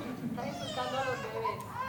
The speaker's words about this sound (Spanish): insultando a los bebés o algo, porque todos lloran.